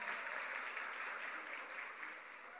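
Steady applause from a crowd, a dense continuous patter of many hands clapping at even loudness for a few seconds, with no voices standing out.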